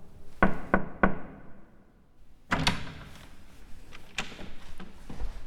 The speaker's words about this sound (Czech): Nestává se tak často, že bychom si museli před vstupem na kůr zaklepat.